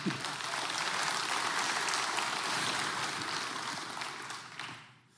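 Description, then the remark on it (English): Steady applause from a crowd after a speaker reads a Bible verse from Hosea 14 aloud, a dense wash of many hands clapping at once, holding strong for several seconds before tapering off at the end. “Yeah, you can clap.”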